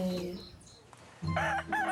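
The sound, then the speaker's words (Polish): A rooster crows in two loud, drawn-out calls, the second rising and wavering strongly; a quieter stretch with faint background noise separates them. “Zapiał kogut i pofrunął na grzędę.”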